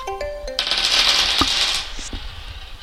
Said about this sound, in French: Euh, pour finir, est-ce que tu accepterais de les lancer, de choisir un dessin porté par ces dés et surtout nous partager euh, ce que cela t'inspire Avec plaisir. Mon jeu, je jette alors.